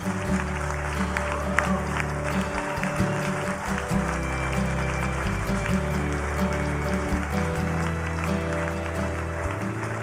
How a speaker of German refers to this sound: ihnen den Applaus geben für den Mut, den sie hatten.